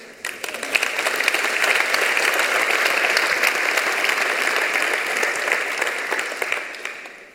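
An audience applauds steadily for several seconds, a dense wash of many hands clapping that swells quickly, holds at a fairly loud level, then fades out at the end. No one speaks.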